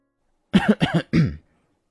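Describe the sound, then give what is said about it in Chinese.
A man gives a few light, throaty coughs in quick succession after putting down the documents in his hands. There are three short bursts with a slightly voiced, throat-clearing quality, moderately loud and alone with no talking. “放下了手上面的文件，稍微咳嗽了几下，说着。”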